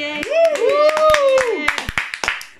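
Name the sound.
applause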